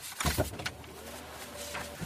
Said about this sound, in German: Ich sitze jetzt da zusammen mit dem Fahrer vom CDA im Auto und wir warten auf ihn.